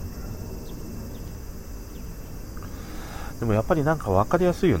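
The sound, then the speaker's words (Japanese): A steady, high-pitched cicada drone, heard through an open window at home on a clear day after the rainy season ended, fills the background throughout, and a person begins talking over it during the final second and a half. “今日はなんかいろんな音が入っててむしろちょっといいかもしれないね今こうやってセミの声も入ってくるし、まあ、鳥の声とかねもううちは本当になんか、まあ、賑やかなんだね、窓開けるとね。”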